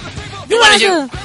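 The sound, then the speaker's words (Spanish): A loud, strained vocal scream bursts out for about half a second, rough and throaty with a falling pitch, preceded and followed by quieter background sound. “Pero se puede tomar clases para gritar así.”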